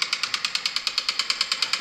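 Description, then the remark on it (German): Rapid, steady mechanical construction hammering like a jackhammer, about nine sharp hits per second in an even rattling rhythm, loud, with no voices. “Oh, das ist Lärm, das ist Baulärm.”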